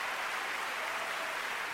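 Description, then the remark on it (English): Dense, steady applause from a large crowd of 10,942 hands, a continuous wash of many hands clapping at once with no pauses and no voices standing out. “This is the sound of 10,942 hands showing appreciation.”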